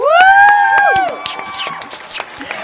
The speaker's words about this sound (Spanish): Por favor. Pedimos un muy fuerte aplauso, gritos, palmas, besitos, chifliditos